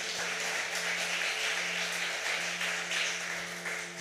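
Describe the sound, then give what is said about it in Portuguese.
A church audience applauds Jesus at the preacher's request, clapping steadily for about four seconds, a dense, continuous wash of many hands clapping at once, moderately loud with a low electrical hum beneath. “Me ajuda a pregar, aplauda Jesus aí por isso.”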